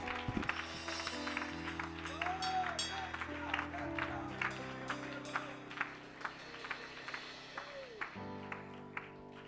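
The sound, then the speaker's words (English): An audience at a church service claps their hands in praise of God in scattered, uneven bursts over sustained organ-like chords, with a few voices rising and falling beneath the claps. “My God, somebody clap your hands and praise God enough.”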